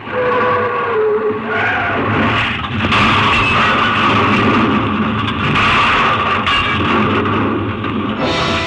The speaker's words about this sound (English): Oh, bad crash. Afraid not. Too bad about your plane.